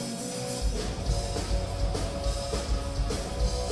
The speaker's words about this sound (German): hier ist ein Song, den ich ganz besonders gut fand